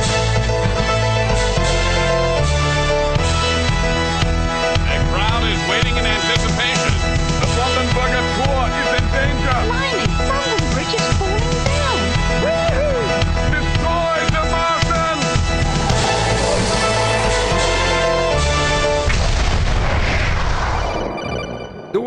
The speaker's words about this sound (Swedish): Så här kommer jingeln.